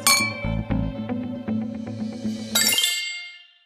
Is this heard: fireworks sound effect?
no